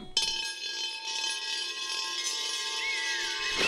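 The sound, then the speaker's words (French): A marble rolls steadily around a bowl, making a continuous bright whirring rumble with a faint sustained ringing tone from the bowl, lasting a few seconds at an even level with no voices. “D'abord, il y a une bille qui tourne dans un bol.”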